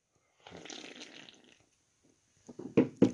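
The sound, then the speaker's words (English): A noisy slurp from a just-opened beer lasting about a second, then a short pause and a few sharp gulping swallows. No one speaks. “Here, let me have a sip.”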